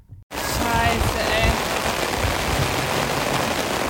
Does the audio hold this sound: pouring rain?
yes